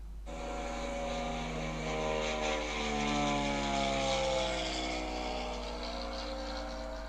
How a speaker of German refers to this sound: Richtig, das ist das Flugzeug. Das Flugzeug. Schön, sehr gut.